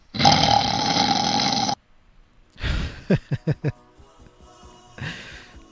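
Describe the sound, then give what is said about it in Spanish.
Homer Simpson from The Simpsons snores loudly and theatrically: a long rasping inhale, then a sputtering exhale with a quick run of snorts and lip flutters, followed by another breathy snore. “Por supuesto que no puede faltar ronquidos de Homero.”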